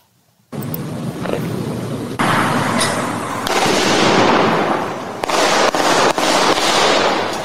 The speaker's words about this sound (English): the gunshots uh, from this surveillance video that NBC Ten obtained